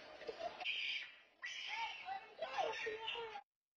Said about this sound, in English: And this guy picks up this teenager and slams him to the ground. And he just screams for dear life. And I wonder if we can we play that video we can actually hear the audio of him screaming. There's no profanity, but Listen to this.